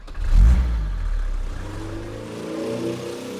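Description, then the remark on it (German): A car engine on a street in Hagen, Germany, roars with a loud low-frequency burst, then revs and accelerates as the driver steps on the gas, its pitch climbing steadily as it pulls away, no voices present. “Er steigt ein, sie gibt Gas.”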